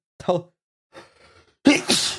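A single loud sneeze: a short voiced catch and a breathy inhale build up before the sharp, hissing burst at the end. No one speaks.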